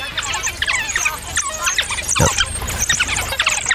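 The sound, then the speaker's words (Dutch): A pack of African wild dogs in the Linyanti region chatters and squeals continuously, with many overlapping high-pitched twittering calls and one brief low thump midway. “Het zijn wilde honden.”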